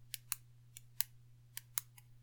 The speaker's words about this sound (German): Und wie es nicht nur dieses eine Klicken ist, dieses Stiftes, sondern allein schon, das wirst du jetzt wahrscheinlich hier nicht hören, das höre ich aber, wenn ich es direkt neben mein Ohr mache, schon allein das Runterfahren des Stiftes